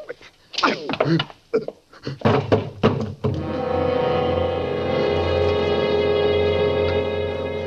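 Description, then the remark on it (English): A man is hit three times, falls with his head hitting the edge of a bed, then slumps to the floor: a rapid flurry of heavy, dull blows lands in an uneven rhythm, ending in a final thump, then a sustained, droning musical chord swells in and holds to the end. “I hit him three times. No more than that. He fell. His head hitting the edge of the bed, then he slumped to the floor.”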